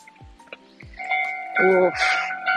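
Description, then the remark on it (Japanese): A railroad crossing warning bell suddenly starts clanging loudly and steadily in a rapid repeating rhythm, with a voice briefly audible underneath. “急にでかい音、踏切。急にでかい音を踏切で。”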